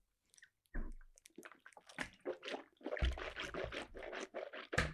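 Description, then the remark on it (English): Wet, gurgly swishing of a sip of drink sloshed around in a mouth right into the mic, continuous and fairly loud with bubbly, squelching bursts and no talking. “She's swishing in the, the mic.”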